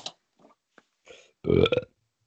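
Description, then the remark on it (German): A loud, drawn-out burp erupts after a few brief, faint vocal noises, rumbling low with a rough, gurgling texture before cutting off. “So von wegen, ich rülps den Podcast nicht.”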